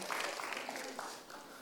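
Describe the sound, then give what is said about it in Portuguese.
An audience applauds the Lord for the lives of the people being thanked: a dense, steady wash of many hands clapping at once, fairly loud and sustained without clear pauses, with faint voices mixed into the noise. “Vamos aplaudir o Senhor pela vida deles, por favor?”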